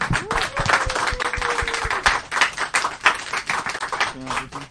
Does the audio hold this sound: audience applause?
yes